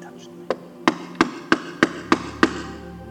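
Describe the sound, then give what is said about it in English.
Seven sharp knocks on a door in a quick, steady rhythm, each one crisp with a faint hollow ring, over a quiet background hum. “But one of my favorites, one of my favorites, there comes a knock one day”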